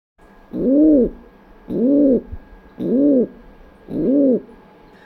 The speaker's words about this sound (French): Cet oiseau, par exemple, le pigeon biset, est très commun en milieu urbain. Mais s'il pullule si bien dans nos villes, c'est qu'elle ressemble à son milieu naturel, les falaises.